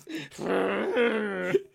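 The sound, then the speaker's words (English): A person makes a mouth sound effect imitating an elephant's trumpet: one drawn-out, buzzy, wavering call lasting over a second, fairly loud, with no other speech. “Sexy like a child doing an elephant.”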